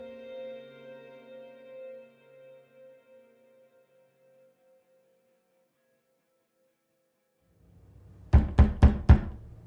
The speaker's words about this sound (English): Next thing you know, someone's pounding on the door.